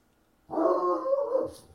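A single drawn-out dog bark, fairly loud, lasting about a second after a brief quiet moment, with no talking around it.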